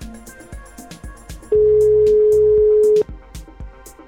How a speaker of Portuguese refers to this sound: Para já vamos ver se ela atende, mas costuma atender, o telefone toca muito alto.